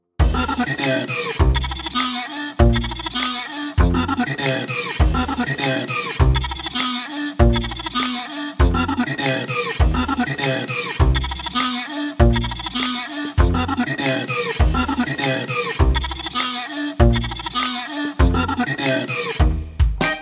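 Eerie dinosaur calls for a game, made on a bowed single-string instrument: a loud, continuous run of wavering, bleating groans and shrieks in quick bursts, with no talking.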